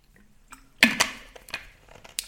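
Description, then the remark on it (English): Wet mouth sounds of someone sipping water: a few short slurps and gulps spaced across a couple of seconds, with a soft click near the end and no talking. “i'm just gonna take a sip of my water”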